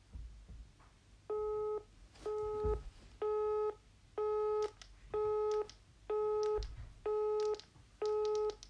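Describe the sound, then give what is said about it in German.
A telephone busy tone after the call connection dropped beeps steadily, eight short identical tones in an even on-off rhythm, fairly loud over faint low background rumble, with no talking. “Die Verbindung ist irgendwie abgebrochen.”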